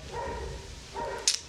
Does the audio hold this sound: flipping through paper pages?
no